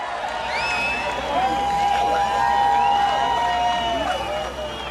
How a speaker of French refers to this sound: Vous entendez ça C'était en novembre 1989. Des milliers et des milliers de Berlinois sont rassemblés en une foule extatique.